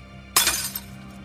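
A sudden, loud crash of something ceramic or glass smashing on a hard floor, a sharp burst of shattering followed by a brief scatter of tinkling pieces, then quiet.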